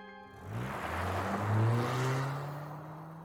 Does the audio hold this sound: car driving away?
yes